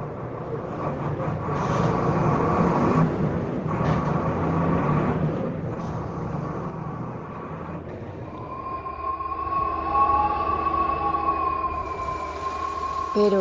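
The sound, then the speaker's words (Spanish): Steady, loud rumble from inside a moving bus, with droning engine noise throughout and a sustained high whine of gear and motor tones rising over the last several seconds. “escuchen, ya no estoy viajando en un autobús.”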